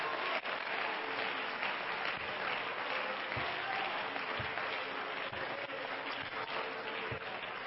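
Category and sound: crowd, audience clapping hands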